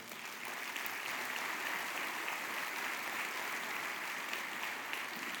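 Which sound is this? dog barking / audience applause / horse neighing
audience applause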